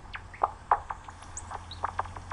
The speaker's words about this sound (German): Und da steht 21 Kilohertz angezeigt. Warum bis 21 Kilohertz? Weil der hat jetzt einen Ruf aufgenommen bei 21 Kilohertz. Und das ist so die klassische Frequenz vom großen Abendsegler. Und die kommt jetzt näher?